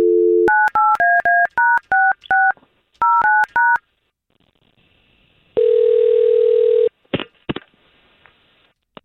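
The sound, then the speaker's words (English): A brief dial tone gives way to a quick run of about a dozen keypad beeps as a phone call is placed, then a pause, a single loud ringing tone, and a few sharp clicks as the line connects. “Okay, we're gonna give her a call right now.”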